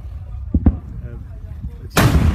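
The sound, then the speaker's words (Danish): Volcanic eruption booms: two dull, muffled thuds, then a sudden powerful blast that bursts in loudly and keeps roaring as a deep, rumbling wash of sound. “Jeg tror nu godt nok, det er fra en af de nærliggende øer, men det giver måske et meget godt billede af, hvordan det, det nok har lyttet.”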